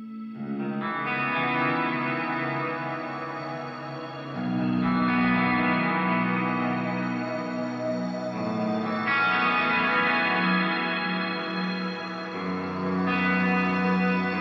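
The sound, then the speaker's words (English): A band's new song recording plays with steady, sustained guitar chords soaked in chorus and distortion, shifting to new chords every few seconds over a full, loud, continuous band sound with no talking. “new song. Let's uh, let's let's get into that.”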